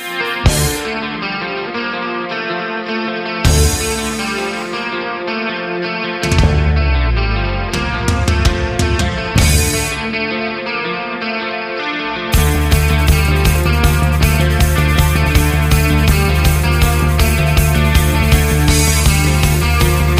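A loud, grandiose rock song with distorted, effects-laden guitars. It builds through sweeping, shifting sections into a heavy driving groove with pounding bass and drums, carrying a dark, apocalyptic, mystical feel. No one speaks.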